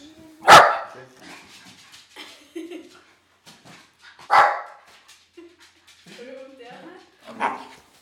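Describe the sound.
A dog named Drillo barks three times in an apartment in Oslo, each a loud, sharp single bark spaced a few seconds apart, while people talk quietly in the gaps between barks.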